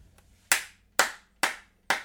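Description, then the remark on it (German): A single person claps their hands four times in congratulation for a game show win, at a slow, steady pace, each clap sharp and bright with a short decay. No voices are heard. “Erstmal, warte mal, ich muss mal ganz nach hinten rollen, damit ich auch klatschen kann.”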